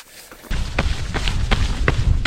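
Trekking poles clack against an uphill mountain trail at 3 a.m. as a hiker pushes up the mountain, sharp bright taps repeating in a steady rhythm about every half second, over a continuous low rumble of movement.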